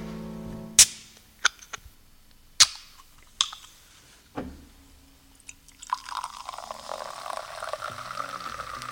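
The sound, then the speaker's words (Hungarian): Several sharp metallic clicks and snaps from a can, then a canned wine spritzer from Mád is poured, settling into a steady fizzing hiss of bubbles. No voices. “Ez a nagyon jó ham, amit a kedves hallgató most hall, nem más, mint a mádi buborékok. Dobozos fröccs.”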